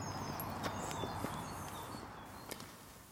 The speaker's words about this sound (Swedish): Vi hörde Ter Tomman gå iväg med sin ledarhund Öman för en lunchpromenad